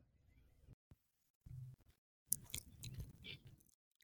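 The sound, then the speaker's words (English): Wet, squishy chewing very close to the microphone, coming in irregular bursts with short pauses, growing louder and crunchier toward the end. “just the chewing, just the chewing on the mic has me dead.”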